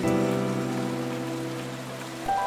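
Steady rain hisses throughout, a dense, even wash of noise mixed with sustained low tones like a held musical chord that shifts near the end. No one speaks.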